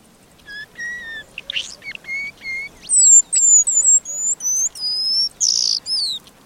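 A paradise whydah calls alone in a rapid series of high, thin whistles and buzzy chirps, some sliding in pitch, clear with brief pauses between phrases.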